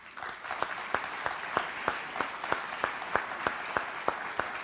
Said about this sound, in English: And don't, don't clap for me because the glory is His.